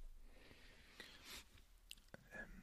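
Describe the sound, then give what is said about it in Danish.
Soft chewing of a bite of a fresh fish dish, with a few irregular moist clicks and smacks over a couple of seconds and no talking. “Mm, jeg tror, jeg, øh, jeg tror, jeg tager en lille bid, hvis det er okay.”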